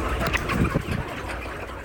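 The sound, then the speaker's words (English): Chickens squawk and cluck in a busy, overlapping flock chatter, with the sharpest calls bunched in the first second before settling into a steady, noisy murmur. No one speaks. “Bill is surrounded by chickens because he is running an experiment.”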